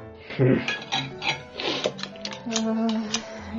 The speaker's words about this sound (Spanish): No hagas ese ruido con el cuchillo.